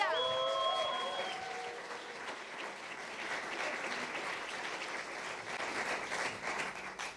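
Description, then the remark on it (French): A crowd breaks into sustained applause for the King of Kings, dense clapping filling the whole stretch, with a few brief tonal whistles or cheers at the start before the clapping carries on steadily. “Et est-ce que on peut faire un grand applaudissement au roi du roi Alléluia.”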